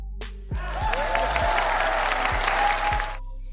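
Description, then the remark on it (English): A crowd breaks into dense, steady applause lasting about two and a half seconds, with some scattered cheers and whoops mixed in, before it quickly cuts off. “So, again, another round of applause for the state of California.”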